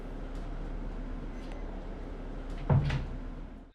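A bus door opens with a short pneumatic hiss and thunk, heard over the steady low rumble of an idling engine, then the noise fades away.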